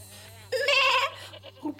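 A goat bleats once, loud, a wavering nasal cry lasting about half a second, followed by a softer trailing bleat, with a faint steady hum underneath.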